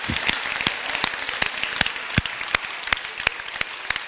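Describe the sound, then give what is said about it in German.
An audience applauds steadily for about four seconds, a dense wash of many hands clapping with sharper individual claps popping out at an irregular beat, with no voices. “Give yourselves a hand.”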